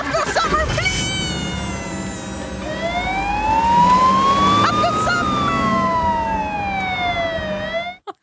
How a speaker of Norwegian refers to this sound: Er det ambulansen som kommer nå for Har du ringt ambulansen nå?